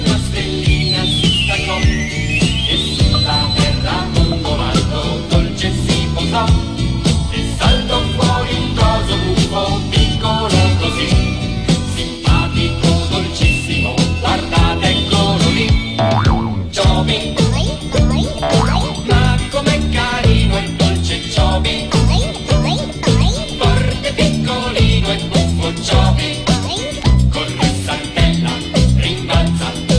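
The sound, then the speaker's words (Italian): A loud, bouncy theme song from the cartoon Il principe stellare Chobin (Prince Chobin) plays continuously with full instrumentation, opening with a springy sliding boing effect; no one speaks over it. “c'è un altro cartone senti Quale?”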